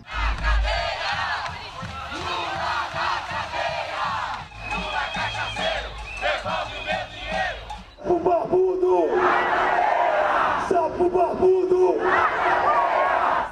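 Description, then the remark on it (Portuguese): A Brazilian protest crowd, critical of former president Lula, chants a shout led by Alexandre Frota, many voices rising and falling in rhythmic bursts, loud and continuous, with a brief pause before the chanting swells again even louder. “nesse último áudio que passei, você sabe quem puxa o grito?”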